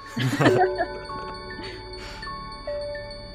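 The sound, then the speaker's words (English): Layered, sustained chiming tones from a sonification of planetary orbits ring out and overlap, with new bell-like notes entering every second or so. A person laughs briefly at the start. “the sonification of the orbits of plane”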